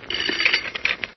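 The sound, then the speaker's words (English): An old-style telephone bell rings in one short, rattling burst of about a second, loud, with a rapid metallic clatter and no voices. “That's my phone.”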